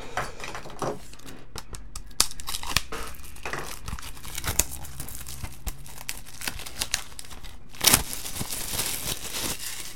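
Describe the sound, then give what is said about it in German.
Steady crinkling and crackling of plastic shrink wrap being torn open on a Windows 95 software box, worked open with a screwdriver, with irregular sharp snaps and one louder ripping burst near the end; no one speaks. “Das oh wahrscheinlich oh erste legale erworbene Windows 95 auspacken zu hören.”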